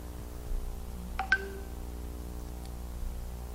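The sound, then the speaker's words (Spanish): A couple of quick telephone keypad beeps sound close together, each with a faint click, over a steady low electrical hum, as a number is dialed to call a person by phone. No one speaks. “Vamos a ver qué me dicen, si no para poder llamar por teléfono a la persona.”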